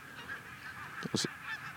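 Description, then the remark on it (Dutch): A flock of geese honks as it flies off: a short burst of overlapping calls, a few loud nasal honks close together over a steady outdoor background hum, with no one speaking. “En, en dan vliegen alle ganzen vliegen nu weg.”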